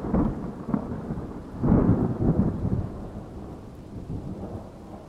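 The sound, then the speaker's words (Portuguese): Deep thunder rumbles and rolls through a storm, swelling loudly around the middle before fading into a lower, drawn-out growl, with rain hissing faintly underneath. No one speaks. “Esses trovões são meio assustadores, né?”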